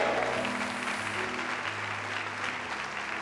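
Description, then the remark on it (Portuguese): A church audience applauds the Lord in praise of God, dense overlapping claps forming a continuous loud wash of sound that holds level throughout, with a low sustained tone, like an organ or keyboard, underneath. “Se você crê no que eu estou dizendo, ainda está acordado, diga glória a Deus e aplauda o Senhor nesse lugar.”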